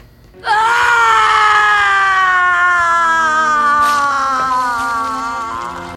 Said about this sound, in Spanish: Mira cómo su hijo es apuñalado y asesinado frente a sus ojos, y sin poder hacer más, lanza un alarido de dolor.